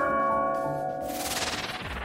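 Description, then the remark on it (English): Bells ring out loudly with long, shimmering metallic tones, then dissolve into a washy, roaring swell of sound that carries on to the end. No one speaks. “It's not Christmas until we hear the bells.”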